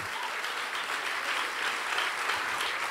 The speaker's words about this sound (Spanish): Si le vas a dar el aplauso, si eso es para papá, no lo sé, no lo sé.